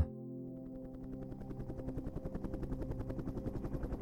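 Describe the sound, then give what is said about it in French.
A helicopter flying over the sea off Costa Rica in fine weather, its rotor thumping in a steady, rapid pulse over a deep engine drone, building up from a low hum and growing louder. No one speaks. “Respire bien calmement et imagine-toi dans un hélicoptère.”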